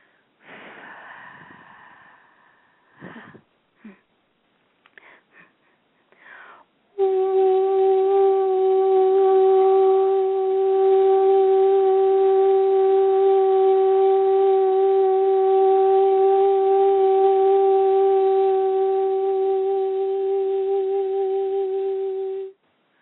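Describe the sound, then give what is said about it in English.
A pulse tone sounds for about fifteen seconds, loud and steady with a buzzy, mid-pitched hum, after several short breathy snorts and gasps. “So um, if you could go from the the jawline right down to the clavicle, almost as if you're running energy up and down it, you're going to hear this as a pulse tone for that purpose.”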